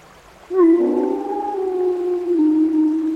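A long, sustained howl rises at the start, then holds steady while a second overlapping tone joins, as an approaching pack of wolves howls together, fairly loud with no talking.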